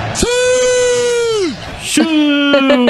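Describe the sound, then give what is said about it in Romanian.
A stadium crowd bellows a long, drawn-out "siuuu" in unison, Ronaldo's goal celebration shout, held for over a second and sliding down at the end, then a second, lower sustained shout begins, loud. “Doar că un șiu de ăsta în grup Pare huiduială.”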